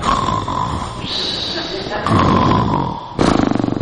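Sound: voice imitating loud snoring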